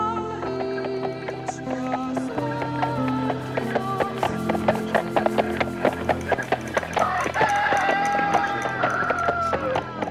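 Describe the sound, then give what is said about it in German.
Roosters crow in a busy village farmyard, their drawn-out calls rising toward the end over a steady clatter of hooves clip-clopping and low background bustle. “Hähne krähen.”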